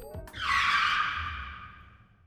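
A loud, harsh tire screech as a driver brakes suddenly and the car comes to an abrupt stop, starting abruptly and holding for about two seconds before fading out, with a low engine rumble beneath it.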